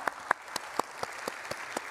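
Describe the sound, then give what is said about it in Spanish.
Audience applause: a steady wash of clapping with sharp, evenly spaced claps standing out about four times a second, moderately loud, with no talking. “¿Qué tal si les damos un aplauso por toda la forma que trabajaron?”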